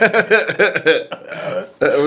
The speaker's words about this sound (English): anyway, I thought about that because of that burp, dude. I'm full. We ate that soup that my wife made a second ago.